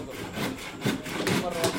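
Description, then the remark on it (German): A hand saw cuts through wood in steady back-and-forth strokes, about four rasping passes at a moderate rhythm, as young apprentices demonstrate sawing in a carpentry training workshop in a wooden pavilion at the edge of a refugee camp, with a faint murmur of workshop background underneath. “18 Jugendliche führen mir vor, wie man hämmert, hobelt und sägt.”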